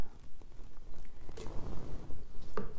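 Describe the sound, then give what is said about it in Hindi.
Water is poured into a glass for a few seconds, a soft, uneven gurgling wash with a couple of brighter splashes, and no voices. “अब ये मैंने यहां पे पानी डाला”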